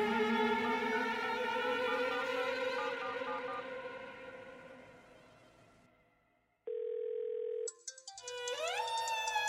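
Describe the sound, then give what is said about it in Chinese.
A mobile phone ringtone sounds alone: a bright, layered melodic tone slowly fades out, then a steady electronic beep holds for about a second before a new ringing melody starts. The ringing comes from the former homeowner's mobile phone in room 402 after a redial. “正如他们三个人想的那样，那铃声在四零二室又响起来了。”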